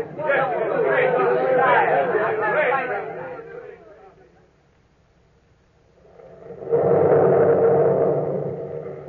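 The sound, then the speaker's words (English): An excited gallery crowd murmurs and cheers loudly, acclaiming a chosen painting, fades away to near silence, then swells up again in a second burst of massed voices. “Listen, don't you hear them? They've chosen your painting.”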